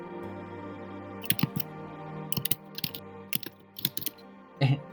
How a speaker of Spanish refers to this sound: se escucha tu teclado.